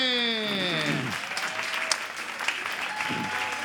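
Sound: audience applause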